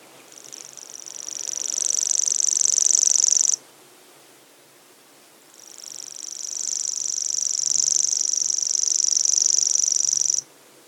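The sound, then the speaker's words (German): A common grasshopper warbler reels in two long, high, insect-like trills, each building and holding steady for several seconds before stopping abruptly, with a pause between them; clear, no talking. “Eine Heuschrecke? Leider nicht, das war ein Vogel, der Feldschwirr.”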